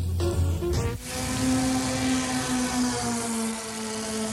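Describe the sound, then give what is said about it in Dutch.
The engine of Ferris's MG car, an increasingly oil-hungry engine shortly before it failed, drones steadily and loudly, a strong low hum with a sharp shift about a second in, then a sustained, even mechanical roar with no voices. “Zo gezond klonk Ferris MG voor de grote klok.”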